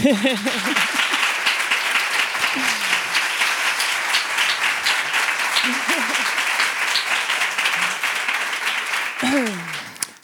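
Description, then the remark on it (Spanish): Sustained audience applause for a guest artist on the show El hombre que se enamoró de la luna, a dense, steady wash of many hands clapping for about ten seconds, with a few voices calling out briefly over it. “Y es por eso que recibes también este pedazo de aplauso.”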